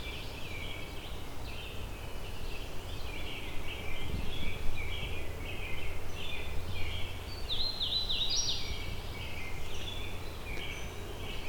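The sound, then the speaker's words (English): A hooded warbler, about a kilometer from where another hooded warbler was found, sings bright, high whistled phrases over a steady low hum of background noise, with other faint chirping running throughout and one clearer, louder phrase near the end. “the location the other hooded warbler.”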